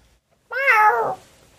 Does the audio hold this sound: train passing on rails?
no